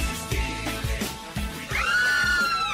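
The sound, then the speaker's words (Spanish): A man lets out a loud, drawn-out shout that rises and wavers on air on the XFM radio show, signalling the start of its technology segment, ringing over a rhythmic music bed with steady thumping beats underneath. “cuando escuchan gritos al aire es porque … está listo para entrar a nuestra sección de tecnología”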